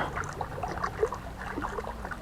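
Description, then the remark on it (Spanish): Water splashes and sloshes continuously, an irregular churning like someone swimming in a lagoon at 5 in the morning, fairly soft, with no voices present. “mientras llevaba la última paca de pastura para los caballos, escuché un chapoteo, como si alguien estuviera nadando en la laguna.”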